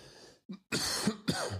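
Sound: coughing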